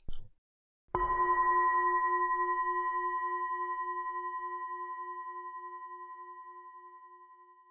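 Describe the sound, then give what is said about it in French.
A single gong strike at about one second rings out loud and clear, its layered metallic tones shimmering with a slow beating pulse as they fade gradually over several seconds. No one speaks. “Commençons au son du gong.”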